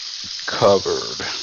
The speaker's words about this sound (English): Wash my hands off here real quick.